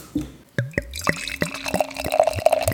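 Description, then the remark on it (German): Beer glugs from a bottle into a glass in quick, uneven bursts, each gulp with a rising pitch as the glass fills, ending in a fizzy, bubbling pour, clear with no talking. “ich habe mir für heute vorgenommen, ein Bier während der Sendung zu trinken. Und werde ich jetzt mir jetzt mal eingießen.”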